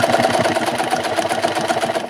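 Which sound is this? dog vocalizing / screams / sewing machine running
sewing machine running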